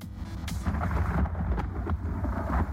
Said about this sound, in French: Waouh mais dis donc, faut rester à l'abri avec cet orage